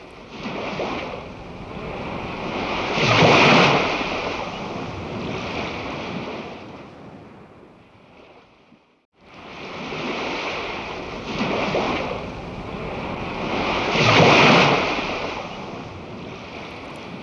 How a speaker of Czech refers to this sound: Náměstí svatého Marka v Benátkách je zase pod vodou. Moře se dere kamennými propustmi a nějaký úředník otráveně nařizuje, aby byly na náměstí položeny dřevěné chodníky.